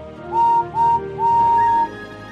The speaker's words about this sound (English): This is a story about Henry the Green Tender Engine. Henry is a kind, gentle engine who is sometimes easily scared. Henry is the number three engine on the Fat Controller's railway and has a whistle that sounds like this.